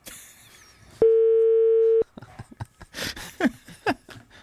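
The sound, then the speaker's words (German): A single steady, mid-pitched telephone ringing tone sounds for about a second, loud and unbroken, then stops and people begin talking. “Servus, wir rufen mal an.”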